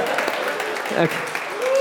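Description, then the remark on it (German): A small group claps steadily for a couple of seconds, a dense patter of hands with voices calling out over it toward the end, applauding a participant who found the Book of Jonah in a Bible search game. “Applaus.”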